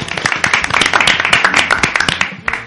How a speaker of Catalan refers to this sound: un aplaudiment, va.